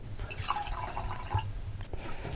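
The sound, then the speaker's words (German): Wine trickles and splashes steadily into a glass, a gurgling pour with a bright, wet texture that runs for a couple of seconds, with no talking. “Ähm, ja, wir schenken uns mal ein Gläschen ein, ne?”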